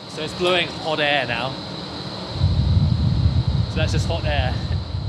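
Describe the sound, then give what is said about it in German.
A steady low rush of hot drying air blowing through the lower-floor oven of a distillery's malt kiln, with no fire burning, while the grain is being dried; it grows louder and rougher partway through, with brief indistinct voices above the airflow. “Weil am Vortag schon gepietet wurde und das Getreide jetzt gerade getrocknet wird, ist im Ofen in der unteren Etage kein Feuer, sondern nur heiße Trocknerluft.”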